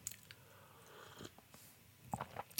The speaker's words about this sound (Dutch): Ik neem even een slokje thee.